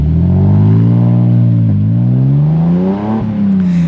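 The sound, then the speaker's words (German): A car engine revs up loudly, its pitch rising through two gear shifts with brief dips between, then settling as it cruises, with no voices present. “hat erstmals seinen Chefreporter fürs Mythologische ins Auto gesetzt, und zwar, ach ja, mich.”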